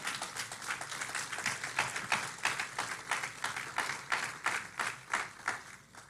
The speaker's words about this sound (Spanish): ¿Cuántos adoran a Dios? ¿Le puedes dar un fuerte aplauso al Señor?